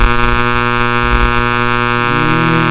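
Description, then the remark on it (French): A fire alarm buzzes loudly and continuously, a harsh droning tone that holds steady, then shifts slightly in pitch near the end. Nobody speaks over it. “C'est l'alarme d'incendie de, de, oh de Lucam.”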